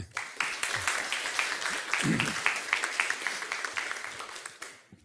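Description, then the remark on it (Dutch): An audience applauds steadily for about five seconds to welcome a speaker, a dense patter of many hands clapping at once, with a brief low murmur of voices partway through. “Alsjeblieft, een warm applaus.”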